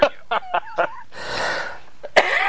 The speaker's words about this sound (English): and forgive me if I have a cough. It is not a pandemic cough. I just, I, I, always seem to cough whenever I do my uh, podcast